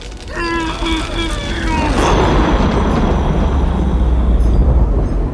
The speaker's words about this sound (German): Aber donnern tut's, wenn ich sauer bin.